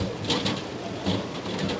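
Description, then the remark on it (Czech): White-tailed eagles give a series of short, high whistling calls, several in quick succession, over a steady hiss of rain-like background noise, at the Rožmberk fishpond in the Czech Republic. “Slyšíte, co to píská? To jsou orlové mořský.”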